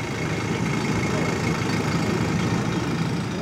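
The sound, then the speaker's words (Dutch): The engine of the ferry from Muiden to Pampus fort island drones steadily on a bright morning, a deep, even rumble with a constant low throb that holds at the same loudness throughout. “Om die in het echt te zien en je zoals ik geen eigen boot hebt, neem je de speciale veerdienst van Muiden naar Pampus.”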